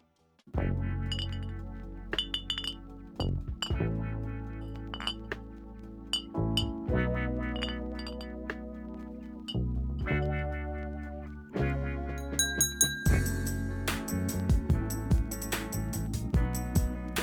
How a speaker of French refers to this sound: Ah, cette virgule, je m'en lasse pas. Ah, cette virgule, elle est incroyable.